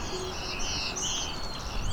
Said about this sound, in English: Nashville warbler here.